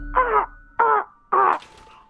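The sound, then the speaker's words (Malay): A person imitates a bird call that sounds like a crow but is not a crow's call, with three harsh, drawn-out cawing cries, evenly spaced, with no other talking. “Dia seakan-akan macam burung gagak. Uh-huh. Tapi bukan bunyi gagak.”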